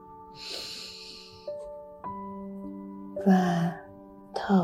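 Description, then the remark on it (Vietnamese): A deep breath is drawn in through the nose during a seated breathing exercise, followed later by a couple of shorter, louder breaths, all over soft, steady sustained music with no talking. “mắt mở hít thở sâu vài hơi bằng mũi và thở ra bằng miệng hít sâu”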